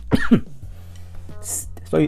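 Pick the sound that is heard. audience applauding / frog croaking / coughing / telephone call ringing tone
coughing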